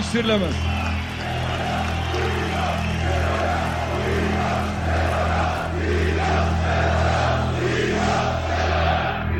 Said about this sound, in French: Ce grondement de la foule que vous entendez, ce sont deux mots terribles. Pendez-le. Pendez-le.